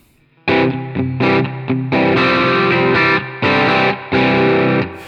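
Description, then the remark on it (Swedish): A distorted electric guitar, played through an effect pedal with the gain set at about 11 o'clock and the spectrum control raised for more treble, plays a series of loud, sustained chords with short gaps between them, the tone bright and fizzy; no one speaks. “Jag skulle nog vilja ha mer topp alltså. Ja, men då höjer vi spektrum lite grann där.”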